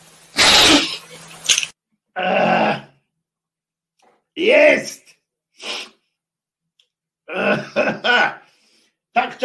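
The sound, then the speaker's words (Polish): A single sharp, loud sneeze bursts out at the start, followed by scattered bits of voice and short vocal sounds with pauses between them. “czekaliście na to, żebym kichnął?”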